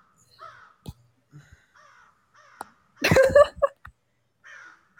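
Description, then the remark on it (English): A crow caws in a loud, harsh burst of several rapid calls as a sound effect, preceded and followed by softer scattered chirps and clicks against an otherwise quiet background. “The, hit the crow! Hit that crow!”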